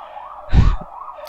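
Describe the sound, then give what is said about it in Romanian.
A police siren wails outside, its pitch sweeping up and down steadily, with a brief low rumble of passing traffic midway through. “acum vine să mai poliția pentru că nu știu despre Banner Saga”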